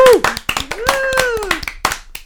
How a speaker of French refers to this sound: Ah, vous êtes bons, hein, ça ah, commence pas mal. On peut vous applaudir.